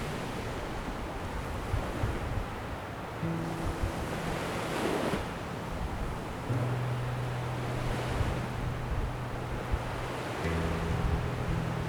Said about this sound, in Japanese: うわ風強い